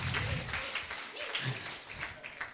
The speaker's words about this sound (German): Ja, lass uns mal alle einen Applaus geben. Das waren nicht alle. Ja, Das ist schon besser.